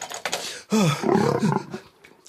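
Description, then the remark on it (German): A loud lion roar with a deep, rumbling growl that rises and falls in a couple of surges over about two seconds, with no talking. “Könnten Sie schnell bei uns vorbeikommen und einen Löwen abholen?”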